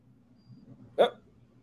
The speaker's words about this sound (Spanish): Ah, es que la perra estaba arrastrando el plato, ¿verdad?